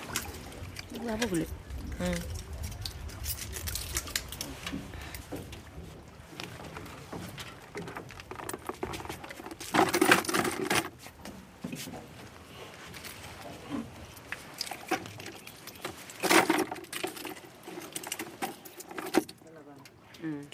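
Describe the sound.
Oysters being harvested from an oyster farm bed set up the year before, with a steady clatter and clink of shells being handled and two louder bursts of rattling, over outdoor ambience and faint voices.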